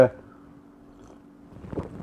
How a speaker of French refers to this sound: prenez une petite gorgée. On prend une petite gorgée pour commencer.